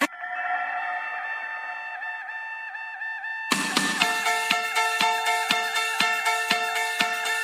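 A synth-pop song starts with sustained, bright synthesizer chords alone, then a steady electronic drumbeat and fuller arrangement kick in halfway through, playing at a moderate, even tempo.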